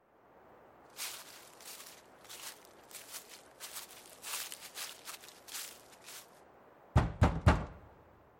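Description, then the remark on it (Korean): Soft, uneven footsteps shuffle along for several seconds, then a delegation of town council members raps three loud, sharp knocks in quick succession on the solid front door of a woman's house. No one speaks. “그리고 그들의 대표단이 8년인가 10년 전 도자기 그림 수업이 중단된 이후 그 어떤 방문객도 통과한 적 없던 그녀의 집 대문을 두드렸다.”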